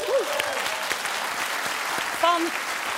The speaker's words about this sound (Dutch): Geef ze even een applaus.